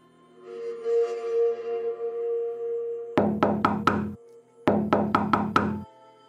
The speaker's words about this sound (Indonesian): Pintu itu seperti digedor dengan keras, secara terus-menerus hingga terlihat bergetar.